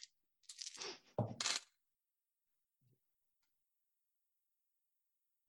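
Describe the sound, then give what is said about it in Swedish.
Eight six-sided dice being rolled for a damage roll in a tabletop role-playing game: a quick clatter of small hard objects tumbling and rattling across a surface, two bursts in the first two seconds, followed by a faint tap and near silence. “Jag har inte slagit alla tärningar än.”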